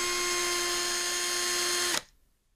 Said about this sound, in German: Es kann ja, als hättest du ein Feuerzeug in der Hand gehabt. Aber das nein. war einfach ein Bohrer. Hörst du das?